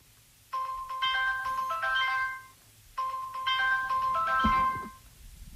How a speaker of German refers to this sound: Es ist 5.20 Uhr. Das war mein Wecker.